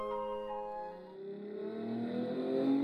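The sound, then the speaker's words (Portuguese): A car engine revs up, its harmonic whine climbing steadily in pitch over a few seconds, fairly loud and continuous with no one talking. “No carro? Mas ele não é menor de idade.”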